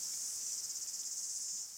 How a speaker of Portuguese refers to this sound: Enfim, ela começou a ouvir a orquestra das cigarras. Estou pertinho, pensou.